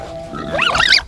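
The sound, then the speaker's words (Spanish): A pig oinks and squeals in one short burst, its high-pitched call rising and wavering for about half a second over a faint low background hum. “Había días que estaba tan hambriento que estuvo a punto de llenar su estómago con las algarrobas que comían los cerdos.”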